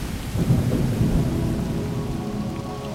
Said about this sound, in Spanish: Los soldados que ya estaban asustados por la niebla creyeron que Tlaloc les enviaba la tormenta en señal de ira, pues sabían que cometían un mal al perseguir a Seacat.